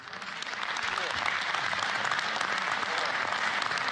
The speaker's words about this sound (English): Wow, bold. I think and a round of applause from that room.